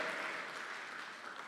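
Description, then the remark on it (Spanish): An audience applauds the Lord together, a dense, steady wash of many hands clapping at even loudness for the whole moment, with no one speaking over it. “Quiero que le dé un fuerte aplauso al Señor.”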